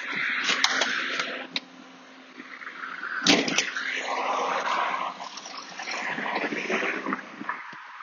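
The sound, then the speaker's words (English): A female dog growls and grumbles steadily, breaking into a few sharp, high yips now and then, with no one talking. “good girl, my little wolfy wolves. Are you my good girl?”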